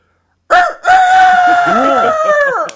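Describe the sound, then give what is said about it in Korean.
A person does a voice impression of a rooster's crow: a short opening call, then one long, loud, sustained cock-a-doodle-doo that wavers and trails off, performed alone. “저, 저, 가 처, 처마이 위에 올라가 있는 씨암탉 한 마리가 새벽에 우는 소리가 납니다.”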